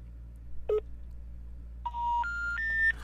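Phone dialing tones as a call is placed to a man: a short electronic beep, a pause, then three steady tones stepping upward in pitch, one after another, clear over a low hum with no voices.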